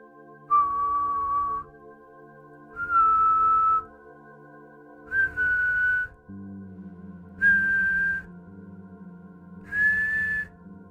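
Five clear whistled notes, each about a second long and evenly spaced, climb step by step in pitch like an ascending scale over a steady low hum, representing the whistle of El Silbon from folklore.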